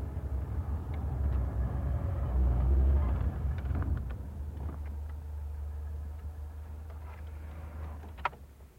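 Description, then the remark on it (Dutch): A car engine rumbles loudly, then eases off and settles into a steady low idle as the car slows and parks on a street in a well-off neighbourhood, with a brief click near the end. “Zo, zet de auto hier maar even neer.”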